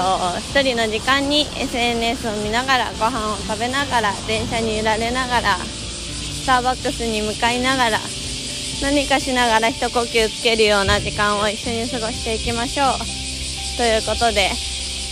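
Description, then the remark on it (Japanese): A dense, steady chorus of cicadas buzzes throughout, a constant high-pitched drone behind a woman talking continuously in the foreground, on a road in Aichi Prefecture, Japan, in summer. “ちょっと後ろにねセミの声があのちょっと大合唱なんですけど夏を感じますね 不快感を覚えた方はちょっと申し訳ないなという気持ちもあるんですけどまあ仕方ないですねあの愛知県は愛知県はというか私がこのいつも通る道には多分どこを通ってもセミの鳴き声はちょっと避けられないというかぐらいねセミがすごいたくさんいる”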